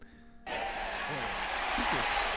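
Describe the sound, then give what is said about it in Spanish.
Steady, dense clapping starts abruptly after a brief low hum and continues evenly to the end, with faint voices murmuring underneath in the studio. “Eh, estoy aplaudiendo acá en el estudio.”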